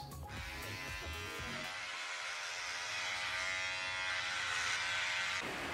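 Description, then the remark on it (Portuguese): An electric shaver buzzes steadily for several seconds as it shaves off a beard, its motor tone roughening and shifting slightly as it cuts through thick stubble; no voices. “Ó, não é só dentro da casa que tirar a barba virou tradição.”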